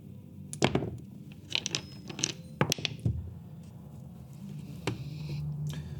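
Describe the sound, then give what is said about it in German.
Dice are rolled across a tabletop for a History check with advantage, in several quick bursts of sharp, hard clicks, irregularly spaced, with a low background hum and no speech. “Du könntest auch einfach History werfen.”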